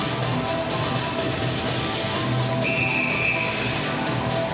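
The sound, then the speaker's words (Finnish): A referee's whistle for offside in an ice hockey game, with 27 seconds left in the third period, sounds once in a steady, shrill blast lasting over a second, cutting through the constant roar of a large arena crowd. “Joo, paitsi on vihellys tulee ja 27 sekuntia on vielä digitaaleissa tämän kolmannen no, erän osalta.”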